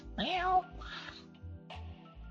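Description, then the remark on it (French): A person mimics a cat with one drawn-out, wavering meow, followed by a couple of softer vocal murmurs, over a steady low pulsing rhythm in the background. “Ah, il n'a pas traduit mon petit transcripteur en dessous là, il n'a pas traduit mon petit mon petit bruit de chat, mon petit miaulement.”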